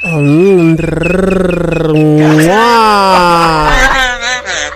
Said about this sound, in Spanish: Adelante con su grito de combate para mujeres.